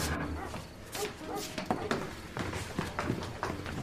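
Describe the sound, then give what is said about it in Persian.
Hurried footsteps pound in a quick, uneven rhythm as people run up the stairs to the upper floor of a building, with sharp thuds over a steady layer of background noise. “میدوان طبقه بالا”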